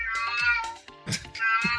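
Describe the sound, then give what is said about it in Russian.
A cat meows twice, each cry drawn out and loud with a brief pause between them, and no one talks over it. “Вот кошка меня поддерживает, молодец.”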